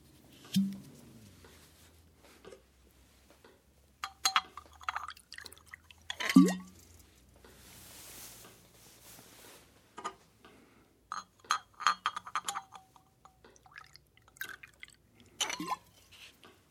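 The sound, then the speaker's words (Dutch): A shot of liquor is poured into a glass, with bottle-on-glass clinks, a short gurgling pour, then scattered drips and taps as it settles. No one speaks. “Of misschien kan ik beter eerst nog een borrel inschenken.”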